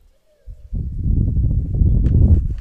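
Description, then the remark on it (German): Wind buffets the microphone in a steady low rumble after a brief quiet start, swelling and staying loud, with some rustling texture on top and no clear voices, recorded outdoors in nature. “Aha, nochmal so gute Angeber-Naturgeräusche zum Rausgehen.”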